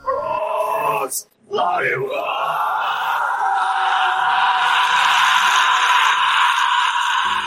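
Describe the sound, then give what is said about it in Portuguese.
A harsh, guttural metal-style vocal growl, a vocal distortion made by the vocalist's own voice, loud, held almost continuously for several seconds after a short opening burst and a brief gap. “Por exemplo, certas áreas, como no metal, você tem vários tipos de distorção vocal feita pelos próprios vocalistas. Né? Eles aprendem a fazer aqueles sons tipo gutural.”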